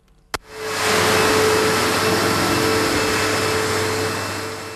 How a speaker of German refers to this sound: In den Keller von der Thurgauer Gemeinde Schlatt laufen die Wassersauger auf Hochtouren. Die anderthalb Tausend Seelengemeinde ist gestern sehr stark getroffen worden von den Regenfällen.